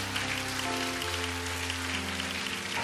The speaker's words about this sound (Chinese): 这掌声荣耀归给神。